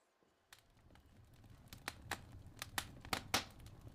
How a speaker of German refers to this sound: Und dazu habe ich mal ein kleines Kaminvideo äh, mitgebracht. Mal sehen, ob es, es knistern hört. Machen wir mal reinhören.